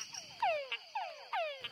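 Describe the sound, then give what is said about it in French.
A túngara frog gives its complex mating call: three descending whines, each followed by a short, sharp chuck, repeated in quick succession, clear with no voices. “Et ainsi s'explique probablement l'attirance des dames Tungara pour les appels complexes lancés par de plus gros chanteurs.”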